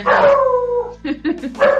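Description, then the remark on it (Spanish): An alarm sounds with a loud, sustained high tone that wavers and falls slightly for about a second, followed by a few short, choppy bursts. “Sí, sí, es una alarma, es una alarma.”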